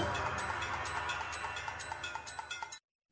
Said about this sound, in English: As time keeps tick tock ticking away